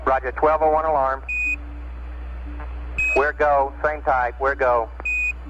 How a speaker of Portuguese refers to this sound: Houston dá o ok para aterrar, mas um segundo depois, um novo alarme dispara na cabina. 1201.